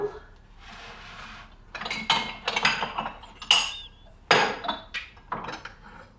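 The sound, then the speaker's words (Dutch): Ceramic mugs clink and knock against each other as they are lifted out one after another, an irregular series of bright taps and clatters with a faint rustle before them. “Ja, ik ga er hier blijven uithalen.”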